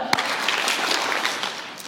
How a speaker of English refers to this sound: Here's what I want you to do. You're just going to repeat and do you do what I do, right? Ready? Give me one clap.